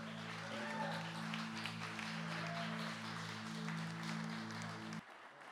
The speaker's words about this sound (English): Come on, keep keep round of applause.